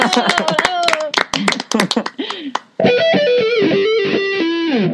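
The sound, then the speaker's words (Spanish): Irregular rounds of audience hand clapping for everyone fill the first half over a faint wavering tone, then give way to a loud, sustained, warbling tonal sound with gliding pitch for the rest. “Muy bien, un aplauso para todos.”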